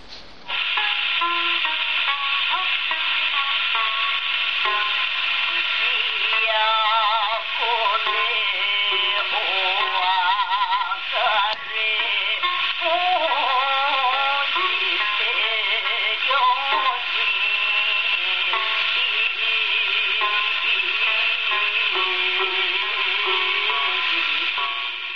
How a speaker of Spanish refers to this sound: pero muy japonés y se distinguía el tañir del samisen. Sí, a pesar de ese ruido de, del vinilo, ¿verdad?